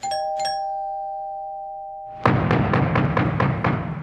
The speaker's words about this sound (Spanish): Permítanme en un momento, me están llamando a la puerta, ya regreso con ustedes.